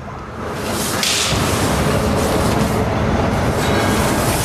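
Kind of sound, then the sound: vehicle, tram passing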